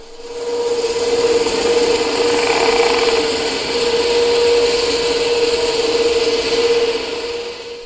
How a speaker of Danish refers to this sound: så er det værd at understrege, at lyde under vand kan høres meget længere væk end på landjorden. Her er lige et lydklip, hvordan et katamaranfærge lyder under vand.